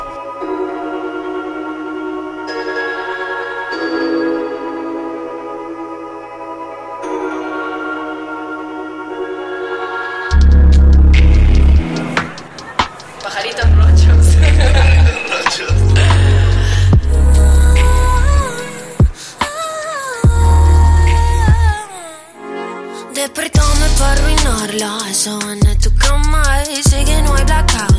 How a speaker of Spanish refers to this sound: bueno, vamos a escuchar una cancioncita